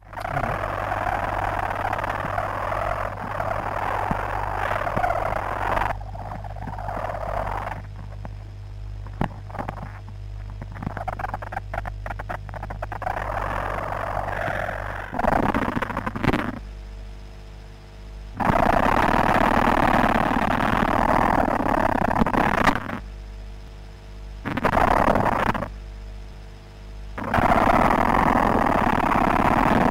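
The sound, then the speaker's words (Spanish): Amplified ant stridulation: a rapid, raspy scraping buzz, first a higher-pitched worker's chirping, then a deeper, coarser queen's rasp in loud bursts separated by short pauses, with no talking. “El primer sonido que ponemos, que es mucho más agudo, fijaros, es de una hormiga obrera, y el segundo está grabado de una hormiga reina.”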